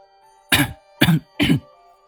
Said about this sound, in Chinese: 医生轻轻咳嗽。清清喉咙道